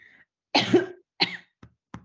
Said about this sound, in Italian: Colpetto di tosse, cioè, il bello della diretta, eh, oserei dire.